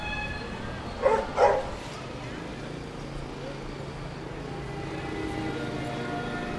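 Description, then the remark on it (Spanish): A dog gives two quick, sharp barks early on as four dogs pass a café terrace on a street, then only a steady street hum with traffic continues for the rest. “En cada calle se ven tres, cuatro perros.”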